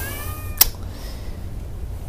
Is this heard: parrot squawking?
no